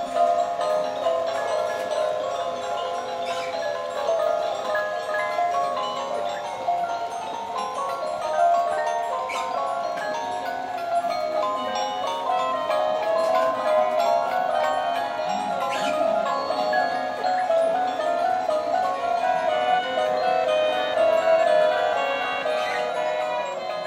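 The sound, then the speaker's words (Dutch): A dense, steady tangle of small tinkling chimes and mechanical ticking from a miniature Christmas village display in a garden centre, with sounds coming from each little house, many little tunes overlapping at moderate loudness with no talking. “Van de week was, het, eh, van de week was ik in, in een tuincentrum en daar stond zo'n mooi, veel te kitsch kerstdorp. Met alle geluidjes die uit elk huisje kwamen, stonden aan.”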